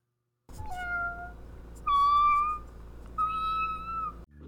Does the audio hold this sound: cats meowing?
yes